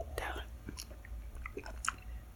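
Someone quietly sips Redbreast whiskey, with a few soft slurping mouth sounds and small wet clicks spread over a couple of seconds, all at low volume.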